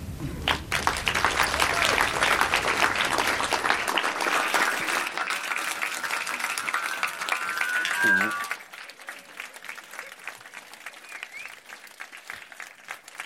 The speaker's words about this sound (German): Guck mal, die hören gar nicht mehr auf mit Klatschen.